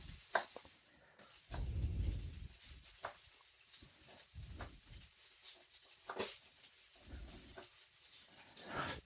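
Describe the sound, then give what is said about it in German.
A knife cuts two small shallots into slices on a cutting board, giving soft, irregular taps and scrapes over a low background hiss, quiet, with no one speaking. “Die lasse ich jetzt noch ein paar Sekunden drin, während ich hier noch die Schalotten, die zwei kleinen, bisschen zerschneide.”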